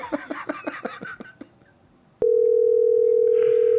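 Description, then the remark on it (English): A quick run of fading rhythmic pulses gives way to a sharp click as the phone is hung up, then a loud, steady telephone dial tone that drones on without a break to the end. “Hey, stupid, you hung up the phone again.”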